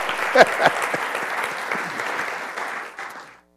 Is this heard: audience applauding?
yes